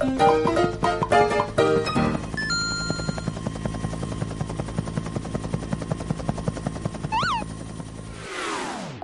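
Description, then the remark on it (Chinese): Airplane engine droning steadily with a rapid, throbbing pulse, after a brief burst of bright tonal notes at the start; a few short chirps rise late, and the roar ends in a falling whoosh. The plane sets off on a trip to Shaanxi, China. “接下来，大家赶快坐上飞机，和我开启今天的陕西之旅吧。”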